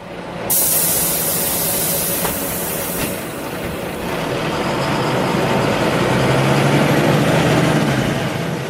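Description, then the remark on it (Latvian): A loud, sudden pneumatic hiss of heavy bus doors opening, followed by a steady rumbling engine idle and continuing air noise, with no voices. “autobuss, jā, kuram taisījās vaļā durvis, un droši vien tās durvis tā kā plēšas izklausījās tāpēc pēc tvaika.”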